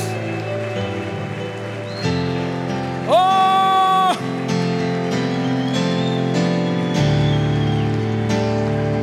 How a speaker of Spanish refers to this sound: ese aplauso al que vive por los siglos de los siglos.